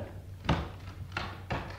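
A door is opened by a mother for her son, with a few solid wooden thuds and clunks, three distinct knocks of movement spaced unevenly over a couple of seconds, with a low steady hum underneath.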